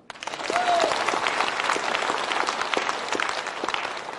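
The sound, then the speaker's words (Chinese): Audience applause, a dense, steady wash of many hands clapping that swells quickly and holds loud throughout, with a brief whistle-like tone near the start. “此处有掌声。”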